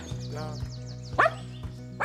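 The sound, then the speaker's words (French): A dog barks sharply a couple of times, loud, with a short pause between barks, as it runs toward visitors arriving at a house, over a steady low mechanical hum. “Avec le chien qui court vers nous et tout, c'est la folie.”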